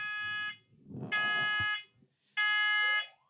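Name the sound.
fire alarm going off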